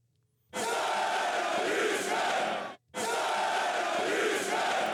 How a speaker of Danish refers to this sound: Nej, det var lige øh, hver tribune, der fik lov at råbe den enkelt gang der.